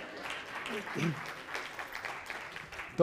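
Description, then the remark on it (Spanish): An audience applauds the day's volunteer model, clapping steadily for about three seconds, a dense crackling wash of many hands, with a few voices briefly cutting through near the middle and right at the end. “gracias modelo, un aplauso para el modelo de hoy.”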